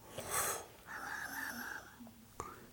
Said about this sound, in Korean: 배가 부르자 졸음이 몰려왔어요. 하품 한번 해봐.